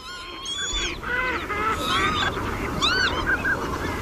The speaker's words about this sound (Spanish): ¿El estornudo qué pájaro era? La gallineta.